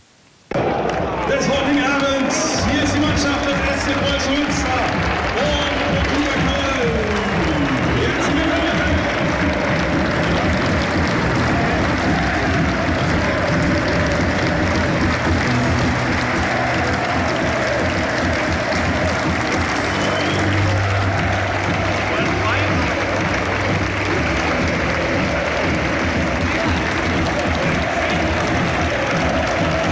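A loud football crowd at the Preußenstadion during a Regionalliga match roars and cheers continuously, with clapping and shouting blending into a dense wall of noise, and chant-like sustained tones rising and falling throughout.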